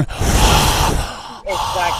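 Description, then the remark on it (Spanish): A voice imitates heavy breathing: a long, loud, breathy rush of air, a brief pause, then another forceful exhale with a slight voiced rasp. “Y sentía la respiración. ¿Cómo sentía?”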